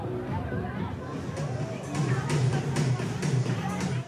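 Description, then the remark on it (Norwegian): A dense crowd at the 2013 Europride parade in the streets of Marseille murmurs and chatters outdoors, a steady wash of many overlapping voices that swells slightly louder midway, with scattered higher shouts rising above the babble. “Dette er lyden av Europride-paraden i Marseille i 2013.”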